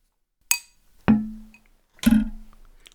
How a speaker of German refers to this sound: Ich habe meine Schere genommen, weil die Toast klingt sonst so blöd am Glas.